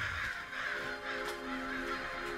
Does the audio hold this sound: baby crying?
no